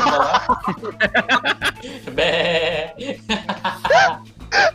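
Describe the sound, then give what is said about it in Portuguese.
A sheep lets out a wavering, drawn-out bleat, surrounded by bursts of people laughing and chuckling before and after it. “Ó, oh, ele me deu uma ovelha.”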